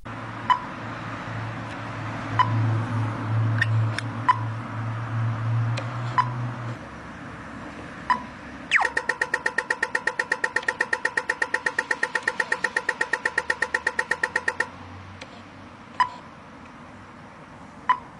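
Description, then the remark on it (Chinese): An Australian pedestrian crossing signal ticks slowly and steadily, then bursts into a rapid, hard, buzzy run of clicks for about six seconds before returning to slow ticks. Low traffic rumble underneath. “接下来这个是澳大利亚的声音。”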